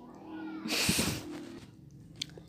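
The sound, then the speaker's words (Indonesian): A child's brief high-pitched shout rises for about half a second over a low hum, from children playing out front, followed by faint background activity and a small click near the end. “wait ya ini ada anak-anak bocah lagi main di depan gitu ya jadi di masa-masa ini tuh justru kita aduh, mohon maklum ya kalau misalnya dengar ada anak-anak bocah teriak”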